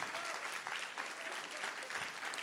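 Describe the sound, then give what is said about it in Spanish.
Loud, sustained applause from a crowd for Jesus, a dense wash of clapping that stays steady and full for the whole stretch with no pauses or voices standing out. “Vamos a dar un aplauso fuerte a Jesús.”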